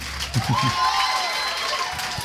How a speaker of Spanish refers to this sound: Y un aplauso a ellos porque están bien chingones, de verdad. ¡Qué honor tenerlos en Querétaro!